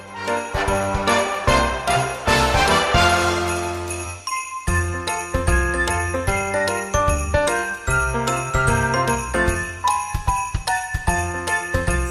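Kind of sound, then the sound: sound effect, jingling of small bells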